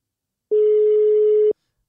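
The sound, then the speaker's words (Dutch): A single steady telephone tone sounds for about a second, clear and fairly loud with nothing else around it, like the line tone heard while a call is being placed. “Waar bellen we naartoe?”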